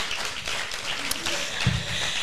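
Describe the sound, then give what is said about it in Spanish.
A steady wash of crowd applause, dense and crackly, holding at an even moderate level for a couple of seconds with a brief low thump partway through. “Pueden aplaudir, pueden aplaudir, pueden aplaudir.”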